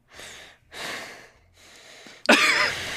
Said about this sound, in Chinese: 生气的愤怒喘息声。